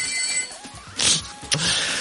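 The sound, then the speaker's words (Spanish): A telephone rings in short, bright bursts of shrill electronic tone over a faint background hum, moderately loud, with no one speaking. “Hoy es que funciona el teléfono, ¿eh?”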